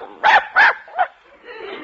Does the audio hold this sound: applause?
no